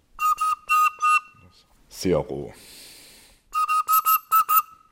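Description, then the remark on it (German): A newly made lead organ pipe, built to match historic originals for the organ in Hamburg-Neuenfelde, is test-blown after its mouth is cut, sounding short, clear whistling tones several times in quick succession before and after a brief spoken word and a soft breathy rush. “schneidet er ein Rechteck ins Blei, sozusagen die Lippe der Pfeife. Erst jetzt erzeugt sie einen Ton.”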